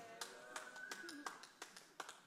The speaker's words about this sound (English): That's like a, thanks for that golf clap right there.